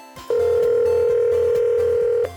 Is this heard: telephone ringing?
yes